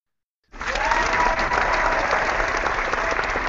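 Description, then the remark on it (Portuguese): A live studio audience bursts into sustained applause after a half-second of silence, a dense, steady wash of clapping that holds at full strength to the end, with faint crowd voices mixed in. “Agora sim, a plateia do Por Falar em Corrida está acordada.”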